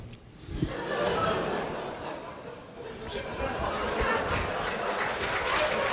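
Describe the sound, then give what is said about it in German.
A crowd applauds steadily for several seconds, a dense, even patter of many hands clapping, mixed with scattered laughter and murmured chatter. “Applaus für den Tod, sehr gut.”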